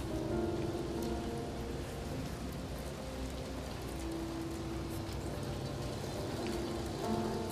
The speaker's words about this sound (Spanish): Y justo en este momento empezó una lluvia tremenda, no sé si la escuchan